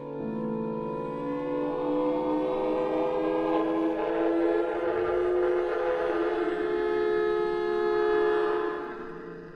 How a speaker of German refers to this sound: Um 18.33 Uhr heult der Fliegeralarm über den Dächern Nürnbergs. Zum vierten Mal an diesem Tag. Das Zeichen für jeden Nürnberger, so schnell wie möglich Schutz zu suchen im nächstgelegenen Bunker.